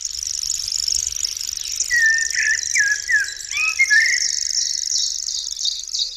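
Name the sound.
songbird singing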